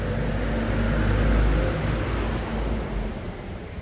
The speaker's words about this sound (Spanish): no llegué a ver si es un auto, si fue un auto de tipo un camión de la basura o qué fue, pero bueno, ahí pasó un auto.